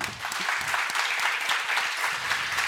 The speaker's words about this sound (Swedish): Kan de få en applåd?